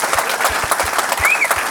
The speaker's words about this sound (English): Isn't that great? Let's clap for him. That's 14 to be here.